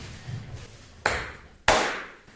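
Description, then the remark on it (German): Two sharp hand claps, made to synchronize the sound recording, land about half a second apart, each a loud, crisp smack with a short fading ring, over a faint low hum and no talking. “Nein, du musst den, du musst ihn viermal klatschen lassen, auf den fünften klatschen wir alle, damit der Ton synchron ja. ist.”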